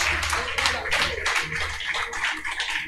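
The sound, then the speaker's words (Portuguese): An audience applauds the name of the Lord, a dense wash of many hands clapping at once that holds at an even, fairly loud level for a few seconds, with a faint low hum beneath. “Se você está comigo, pega essa promessa e aplauda o nome do Senhor.”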